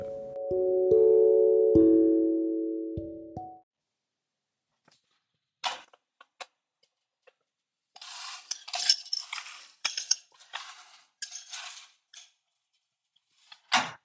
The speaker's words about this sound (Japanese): えー、今日もですね、え例によって、えハイボールを作りながら、えそして飲みながらの収録とさせていただきます。今日は目の前にあるのは、あもうどんどんですね、お酒もなくなってきまして、え富士山麓とですね、えブラック日課のレッドラベルのものがあります。